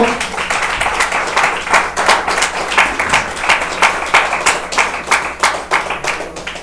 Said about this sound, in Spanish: Denos una de palmas al Señor con todo su corazón.